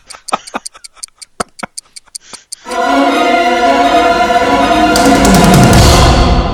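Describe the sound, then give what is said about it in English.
A clock ticks steadily and crisply for a couple of seconds, about twelve sharp ticks, before a loud, dense musical swell crashes in and sustains to the end. “as we look upon the face of the mighty Doom Clock”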